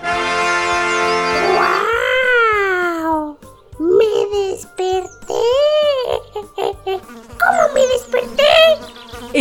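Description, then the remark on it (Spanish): A steady, droning buzz of a fly landing on a little donkey's head fills the first couple of seconds, fairly loud, then gives way to a string of rising and falling cries of "ay" from the donkey as it wakes up itching. “Temprano, a la mañana siguiente, una mosca vino y se sentó en su cabeza.”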